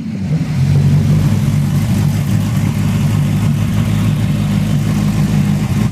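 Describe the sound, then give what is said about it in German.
The 470 hp Maserati engine of a one-off four-wheeled motorcycle built by the motorcycle maker Lazarett roars steadily and loudly, a deep, throaty rumble sustained throughout with slight throttle fluctuations, no voices present. “du da übrigens Röhren hörst, ist eine echte Höllenmaschine. Ein Einzelstück mit einem Maserati-Motor mit 470 PS und vier Reifen.”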